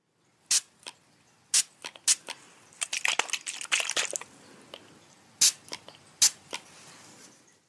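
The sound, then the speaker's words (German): A spray bottle of skin disinfectant, applied before a vaccination, is pumped in a string of short, sharp hissing spritzes, irregularly spaced, with a quick flurry of sprays in the middle and no talking. “das war eine Sprühflasche. Desinfektionsmittel, was auf die Haut kommt, bevor man geimpft wird.”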